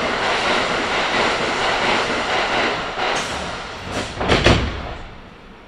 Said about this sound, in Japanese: 駅で電車が1本通過します発車までしばらくお待ちください